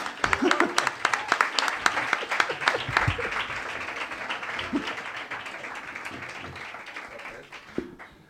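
A crowd at Café La Palma breaks into applause for a guest invited onto the stage, dense overlapping claps that start strong and gradually thin out and fade over several seconds, with a few louder individual claps standing out.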